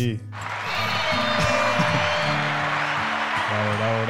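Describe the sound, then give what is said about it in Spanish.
A burst of applause starts abruptly and holds steady as a dense, loud wash of clapping for about four seconds, with voices murmuring and talking underneath. “Ah, Aplausos.”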